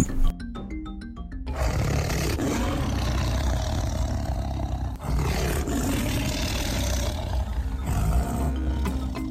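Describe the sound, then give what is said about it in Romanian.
After a brief tinkle of musical notes, a tiger lets out deep, rumbling roars that continue loudly for several seconds, with a short break midway. “Astăzi vom continua să vorbim despre tigri.”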